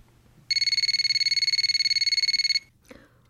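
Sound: telephone ringing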